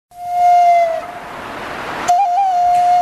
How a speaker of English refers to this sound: Well, Hear the flute right there.